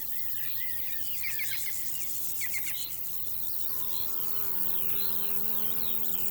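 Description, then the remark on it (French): Insects buzz and chirp in grass and lucerne in the morning: a steady, high rhythmic stridulation pulses throughout while a low droning hum swells in partway, layered with scattered chirps. No voices. “Un grésillement fuse de l'herbe.”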